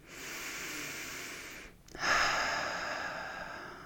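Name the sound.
deep breath in nose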